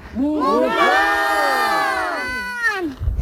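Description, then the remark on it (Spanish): A group of children at an eco-reserve shout together in one long, loud, sustained call to make the animals come, their many high voices overlapping and rising then falling before trailing off into a few scattered sounds. “Vamos a llamarlos para que vengan, ¿vale? A la de tres. Tres, dos, uno.”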